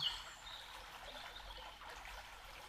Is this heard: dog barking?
no